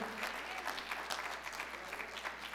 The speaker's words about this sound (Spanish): Y si usted lo cree, dele palmas al Señor.